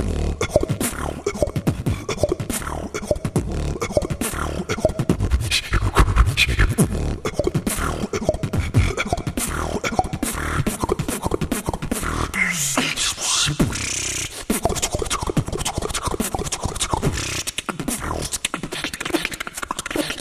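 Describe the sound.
Continuous, rapid vocal percussion through a microphone, punchy bass thumps and crisp clicks and hisses in a steady groove, sounding washed with echoing reverb, loud for about twenty seconds.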